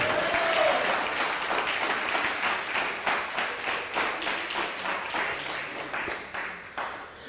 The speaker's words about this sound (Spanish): Un fuerte aplauso. Todas las naciones. Pero que se escuche la alegría a través del aplauso. Parece que esto está en un velorio.